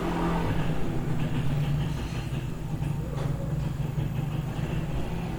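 Loud motorcycle engines rumble steadily for several seconds, a thick low drone with a slight rise in pitch partway through, with no talking.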